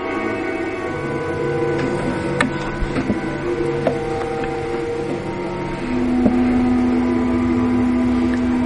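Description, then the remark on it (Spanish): A low, dark orchestral rumble of sustained strings, trembling steadily and filling the background, with a denser low note swelling in near the end. No voices. “¿Oyen el temblor?”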